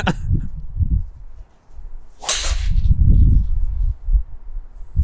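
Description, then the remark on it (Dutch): A single sharp whoosh-and-crack of a golf driver swinging through and striking the ball, a shot measured by Trackman at 315 metres, a quick bright burst set against a steady low rumble. “Hij begint ze nu echt te raken.”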